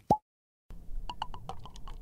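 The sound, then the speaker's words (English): A single hollow plop, then a short pause before a run of quick liquid glugs and splashes as an Aperol Spritz is poured into a glass, fairly clear, with no talking. “it's the time I'm gonna pour you your your prize, your ugh, delicious smelling.”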